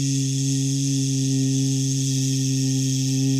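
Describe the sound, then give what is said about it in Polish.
A voice sounds the letter z as a steady, buzzing "zzz" for about three seconds, imitating a drone or hum. It is even in loudness, with no other sounds around it. “Zi, literka zi, zi, tak jak na przykład, o, ale w ogóle sam odgłos zi,”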